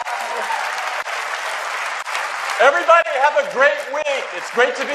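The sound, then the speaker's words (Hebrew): A large crowd at last year's Apple event applauds steadily and loudly, a dense wash of clapping, with excited cheers and whoops breaking out over it in the second half. “לא, הנה התנועה שהייתה באירוע של שנה שעברה, כשכולם עפו לו כפיים.”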